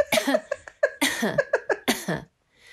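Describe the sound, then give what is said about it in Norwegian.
A rapid string of about eight harsh coughs, fairly loud, bunched into a fit lasting a couple of seconds, followed by a brief quiet breath. “Men nå kan jeg hoste sånn.”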